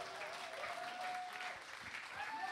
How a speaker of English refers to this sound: Let's keep the claps going